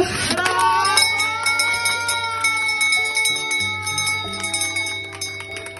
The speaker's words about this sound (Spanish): Toca tres veces fuertemente esta campana, que su sonido repique claramente. Mi tratamiento acabó. Este capítulo se cerró y yo sigo adelante.